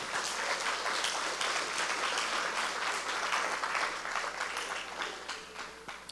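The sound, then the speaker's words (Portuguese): A crowd claps steadily for several seconds, a dense, continuous wash of many hands that stays strong throughout before thinning slightly near the end, with no speech over it. An audience is giving Jesus a round of applause at a pastor's call. “Dê um aplauso a Jesus para me ver se você está aí.”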